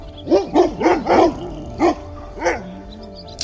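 A dog barks in a quick burst of four sharp yips, then two more spaced-out barks, fairly loud, ending with a faint whine.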